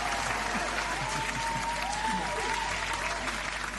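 An audience in a studio applauds to welcome a guest, a dense, continuous patter of many hands clapping at an even loudness throughout, with no break.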